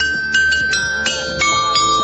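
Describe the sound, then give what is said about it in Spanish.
The bell of Santa Brígida church, at the corner of Princesa and Augusto Alguero 9, strikes four o'clock, each bright metallic clang overlapping the long, humming resonance of the one before, with no voices. “en la campana de Santa Brígida, en la esquina de Princesa con Alguero, con Augusto Alguero, 9, han tocado las 4”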